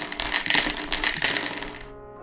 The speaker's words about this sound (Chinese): 好，我们看一下骰子的部分，看看骰出什么样的讯息哈，给四号的人。